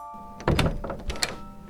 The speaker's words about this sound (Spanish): Corro hacia la puerta gritando, ¡Es Santa! ¡Es Santa! Cuando abro la puerta,